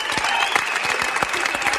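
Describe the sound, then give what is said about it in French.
Sustained audience applause, a dense crackle of many hands clapping at an even, fairly loud level with sharp individual claps popping out irregularly. “Ah, on connaît pas cette partie-là des applaudissements.”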